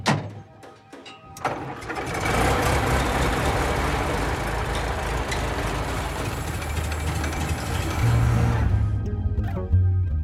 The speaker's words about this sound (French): Mais c'était sans trop connaître euh, son garçon parce que ça n'a pas pris de temps que le moteur fonctionnait pour de vrai.